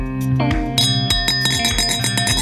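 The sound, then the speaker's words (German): Glass clinks ring out like a bell: a quick series of struck, chiming tones with sustained, shimmering overtones. The strikes come in a fairly steady rhythm, loud and unaccompanied by talk. “Ich habe nichts zum Dranklingen.”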